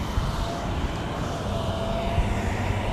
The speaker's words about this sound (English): man, these buses are freaking loud.